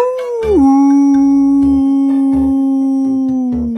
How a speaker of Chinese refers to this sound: 只要对着月亮，从肚子下方的呃丹田发力，呃，这样吼叫的话，呃，保证你全身舒畅。哦，我来示范一个。